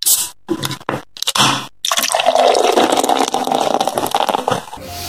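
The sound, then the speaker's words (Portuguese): A few short fizzy bursts, like a can or bottle of beer being cracked open, then a steady gush of beer pouring into a glass for several seconds, with foamy bubbling. “dá o play, vai abrir uma cervejinha ouvindo a gente, rindo das bobagens que a gente fala.”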